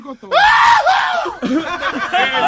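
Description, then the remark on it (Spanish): A voice imitates a father's sneeze as a loud, shrill, scream-like cry rising and falling over about a second, like a woman screaming, followed by breathy laughter-like sounds. “A mí mi papá suena como una mujer gritando. Cuando como una mujer gritando duro, así como.”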